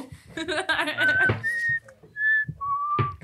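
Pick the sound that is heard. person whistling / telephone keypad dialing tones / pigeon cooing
person whistling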